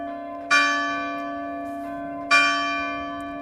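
Bells of two Catholic churches in a tiny village, the German parish church of St. Remigius from 1530 and the French church of St. Joan of Arc built in 1937, ring together in sync, loud, with two clear strikes about two seconds apart whose bright tones linger and slowly fade over a steady low hum.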